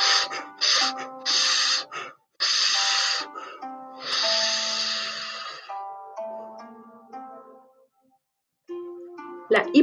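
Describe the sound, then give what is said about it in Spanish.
Several loud, forceful breaths rushed in and out through the nostrils in quick succession as a rapid-blow breathing exercise, harsh and noisy, followed by quieter trailing tones and a short pause before one last sharp breath. “Inspire y exhale aceleradamente por las fosas nasales, con fuerza y ruido, bien alto, rápido y fuerte, pero sin contraer la fisionomía ni sacudir los hombros.”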